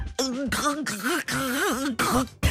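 A man makes loud, exaggerated choking and gagging noises at a dinner table, a series of strained, wavering throaty bursts with brief gasping breaks, pretending he has swallowed the charm (fève) from a galette.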